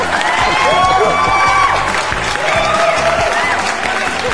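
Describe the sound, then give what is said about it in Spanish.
A crowd bursts into loud, sustained applause mixed with cheering and high whoops, a dense, steady roar of clapping that holds for the whole stretch without easing off. “Aplausos para esa pendejada.”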